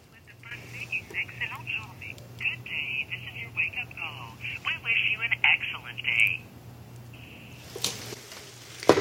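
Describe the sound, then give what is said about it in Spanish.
A tinny, band-limited recorded voice plays through a telephone, an automated wake-up call message saying good morning and that it is an automated call, over a steady low electrical hum, ending with a sharp click as the line cuts. “Ellos configuraron automáticamente una llamada que me dice que buenos días y que esa es una llamada automática”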